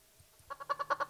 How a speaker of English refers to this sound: I hear that chicken.